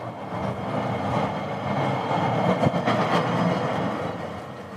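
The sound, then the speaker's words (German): A steady rumbling automated rail cabin runs along its track past a siding and a workshop, with a continuous low hum and occasional faint clicks and rattles, even in loudness throughout. “Man kann auch leicht im Hintergrund jetzt schon hören, dass die Kabine fährt”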